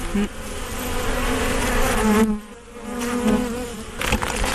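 A dense, steady buzz of many honeybees in an open hive, a continuous droning hum that briefly dips midway before swelling again, with no voices.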